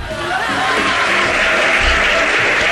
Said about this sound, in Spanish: Aplausos. Re merece aplauso.